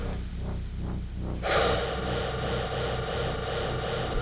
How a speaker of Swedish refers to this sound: Andas djupt in. Andas ut. Andas in och andas ut.